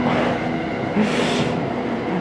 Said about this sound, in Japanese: あちょっとね電車が近づいてきたんで横の方で電車も入るかもですが